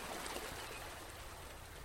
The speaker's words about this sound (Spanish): olas del mar, en la orilla, que observes la fuerza, solo que observes cómo es que van y vienen estas olas, que te detengas únicamente a observar,